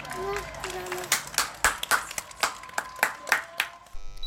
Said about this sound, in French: Applaudis, applaudis.